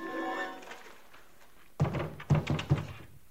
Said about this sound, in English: she fell. She'd been propped up in the tub behind the shower curtain, but she fell out, hitting with a horrible limp sound.